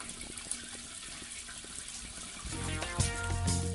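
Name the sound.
water running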